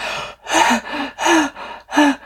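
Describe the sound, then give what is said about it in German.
A voice acts out a fit of coughing and gasping: five or so rough, breathy bursts in quick succession, loud, with strained voiced gasps between them and no talking. “bis sie an den Rand des Beckens kam, wo sie sich festhielt, erstmal richtig doll hustete, fast so viel wie das Reden, und die Augen sich ausrieb und sich festhielt.”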